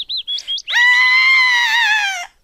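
A girl lets out a long, high-pitched scream of fear, loud, sliding slightly downward before stopping, preceded by a few quick, shrill squeaks, while running through the bush.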